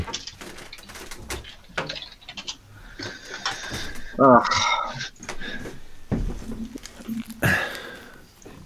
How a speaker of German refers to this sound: ja, aber das Geraschel von dem Hut, wie ihn aufsitzt, das hört man doch.